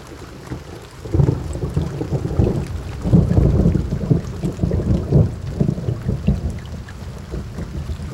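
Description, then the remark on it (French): Steady rainfall hisses throughout while deep, rolling thunder swells in loud waves for several seconds, then eases back to a softer rumble under the rain. No voices. “Bon, ben là, on a, on a changé d'emplacement parce qu'on s'est pris la pluie”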